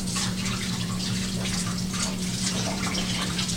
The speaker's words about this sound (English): All right, so I took the little ice mold out of the freezer. I'm gonna run it under some uh, kind of just warmish water.